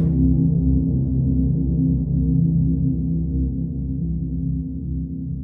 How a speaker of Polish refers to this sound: I ona tam stała i tam skrzypiała i skrzypiała. To był taki tak na tyle fajny materiał, że jak się go rozciągnie... i on jest spowolniony, to wtedy mamy takie bardzo fajne, niskie, dronowate dźwięki.